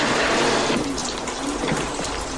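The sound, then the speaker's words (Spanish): Steady, dense hiss of rain pours down without a break, a broad wash of watery noise holding an even, fairly loud level throughout, with no voices. “Ahora, con esta lluvia.”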